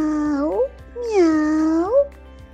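Two drawn-out, loud cat meows: a short one with a rising, bending tail, then a longer wavering one that swoops upward at the end, with a brief pause between.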